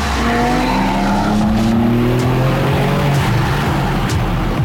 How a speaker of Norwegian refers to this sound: Men du har samtidig en sport sporty liten kjøremaskin. Om den er like sporty som M2 er vel kanskje tvilsomt, men eh, den har mye å by på, og dette er skikkelig gøy.